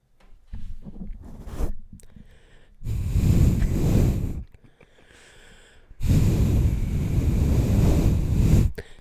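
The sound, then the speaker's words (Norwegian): Strong storm wind roars across a mountain plateau in two long, loud gusts that buffet the microphone with a deep rumble, after a stretch of scattered rustling and handling noise. “Det blåser fæl storm på vidda!”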